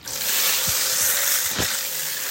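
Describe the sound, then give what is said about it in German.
A steady rush of shower water spraying down, a dense even hiss with a few soft low thuds of splashing mixed in, no voices. “Duschen mit richtig fließendem Wasser.”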